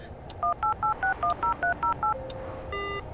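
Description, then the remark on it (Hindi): Telephone dialing tones as a call is placed again at night: nine short, evenly paced keypad beeps in quick succession, followed after a brief pause by a longer steady electronic tone, over a faint background hiss; the line is busy. “अरे यार इस वक्त किससे बात कर रही होगी है रुको यार फिर से कॉल करते हैं”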